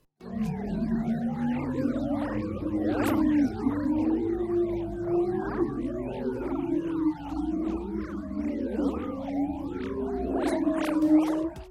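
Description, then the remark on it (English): Sonified solar electromagnetic waves flowing from the sun's atmosphere, their frequencies converted into sound waves by researchers: an eerie, continuous warble of gliding, overlapping tones, almost whale-like, with faint crackles and clicks, holding steady and fairly loud for about twelve seconds with no talking. “To turn these electromagnetic waves into an audible song, researchers transformed the wave frequencies into sound waves.”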